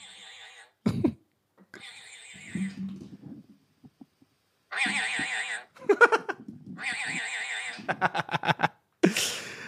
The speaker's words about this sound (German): Und dieses Geräusch klingt so von diesem Vogel. Achtung.